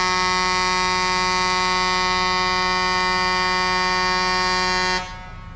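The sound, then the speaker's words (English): A would-be triumphant fanfare: one steady, buzzy horn-like note held flat and loud for about five seconds, then cutting off abruptly, with no melody and no voices. “That's that's your triumphant fanfare.”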